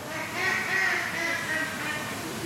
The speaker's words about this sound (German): Das wissen die Enten. Resolut schnattern sie Richtung Terrasse. Irgendwas fällt immer für sie ab.